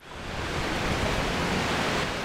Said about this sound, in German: Es weht ein starker Wind.